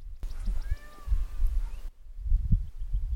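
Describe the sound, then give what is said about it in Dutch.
A peacock fighting with a dog gives wailing, cat-like calls that rise and fall for a couple of seconds over low rumbling noise, then cut off, leaving muffled thumps and scuffling. “Dat is een pauw in gevecht met een hond.”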